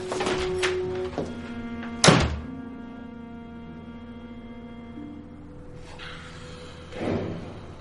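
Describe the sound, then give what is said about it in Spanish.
The front door to the street swings shut with one heavy, loud thunk as a man takes his jacket and leaves, preceded by brief clattering and rattling. A low steady hum lingers afterward, and a softer thump sounds near the end. No one speaks. “Va hacia la puerta de la calle, coge la cazadora y se marcha.”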